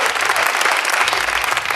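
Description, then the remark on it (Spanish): A crowd claps steadily, a dense wash of many hands applauding at moderate loudness throughout, with no break in the sound. “¿Qué aplaudís? ¿Qué aplaudís?”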